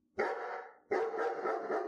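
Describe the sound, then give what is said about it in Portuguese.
Two loud, drawn-out distant dog barks, the second following a brief pause and lingering with a rough, harmonic tone; no one speaks. “Nós nos orientávamos só pelo afastado e cada vez mais assustador latido dos cachorros.”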